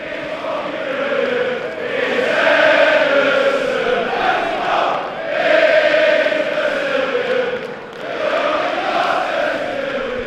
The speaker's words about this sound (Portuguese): E muitas provocações durante todo o jogo da torcida em direção ao Liverpool.